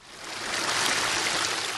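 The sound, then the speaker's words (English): A steady, rushing flow of muddy water runs continuously around K rails and down a sidewalk after rain, a broad wash of noise with a gurgling texture, moderately loud, with no voices. In Duarte, near Melcanyon and Brookridge Roads. “That's what the flow of muddy water sounded like coming around the K rails and down the sidewalk after a decent bout of rain began falling shortly after 8:30 in the morning.”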